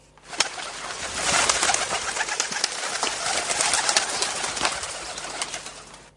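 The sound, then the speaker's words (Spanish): A flock of carrier pigeons coos continuously, with a busy, rustling texture of wing flutters and scattered sharp clicks running throughout. No one speaks. “Y no, no fueron los valencianos los primeros en esto, pues los marinos egipcios ya informaban de su regreso a puerto mediante palomas mensajeras.”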